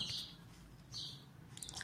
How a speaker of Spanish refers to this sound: Ustedes por ahora disfruten del, del pajarito.